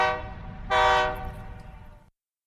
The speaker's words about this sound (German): So klingt der Brüsseler Bahnhof.